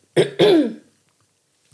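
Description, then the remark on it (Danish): A short throat-clearing sound in two quick bursts, a rough harsh rasp followed by a longer gravelly cough-like clearing, then quiet with a faint click at the end. “Jeg skal lige hoste.”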